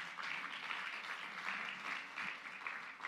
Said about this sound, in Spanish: Denle un aplauso fuerte al Rey de la Gloria.